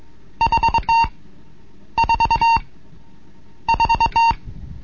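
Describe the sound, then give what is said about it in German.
Three bursts of Morse code beeps, the characters V, 4 and 2, each a quick run of short, buzzy mid-pitched tones ending in a longer one, with brief pauses between bursts and no talking. “Ditti da, da, da. Zweimal kurz und dreimal lang.”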